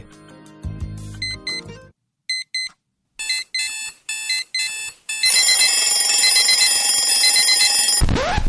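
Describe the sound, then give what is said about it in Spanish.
An alarm clock goes off, first with bursts of shrill electronic beeps, then a loud, continuous ringing that lasts about three seconds before cutting off abruptly. No one speaks. “Sabemos lo mucho que odias este sonido. Nosotros también. Mejor inicia tu día con Wake UP.”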